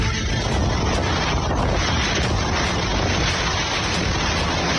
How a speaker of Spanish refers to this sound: Así estamos viviendo la lluvia, una intensidad impresionante aquí en Acapulco.